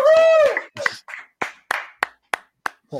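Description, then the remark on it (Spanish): A brief voice gives way to a short run of steady, rhythmic clapping, about six crisp claps in unison, fairly loud, before another voice cuts in at the end. “¿Por qué aplaudís?”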